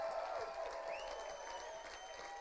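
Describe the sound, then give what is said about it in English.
An audience claps for the Lord in a steady, dense, continuous wash of applause, with sustained keyboard-like tones ringing underneath throughout. “Oh, come on, give the Lord a big clap.”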